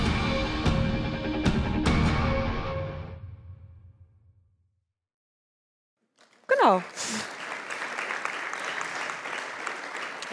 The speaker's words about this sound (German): dürfen gleich weiter klatschen, denn ich freue mich sehr, äh, die beiden Hauptdarsteller des Films begrüßen zu dürfen, Alexandra Maria Lara und Daniel Brühl.